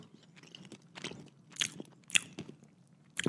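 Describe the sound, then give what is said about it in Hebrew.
Someone bites and chews a piece of meat directly into a microphone, with moist smacking and a handful of sharper crunchy bites at irregular moments, and no talking. “שים אותה בפה והחברים שולחים לי בוואטסאפ שהם לא שומעים אותך לועס, אז אם תוכל בבקשה ישר ללעוס למיקרופון.”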